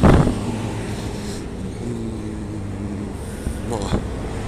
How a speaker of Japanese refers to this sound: 普段あすごいバスが隣を音がしたんでわかるかもしれないですけども乗ってらっしゃったんですけど新橋行きのバスが本当に満杯というような感じで